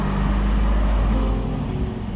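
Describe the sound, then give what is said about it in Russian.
A bus engine rumbles with a deep, steady drone as the bus pulls away, loud, with traffic noise around it and no voices. “Не отрывая взгляда, медленно идет за отъезжающим автобусом.”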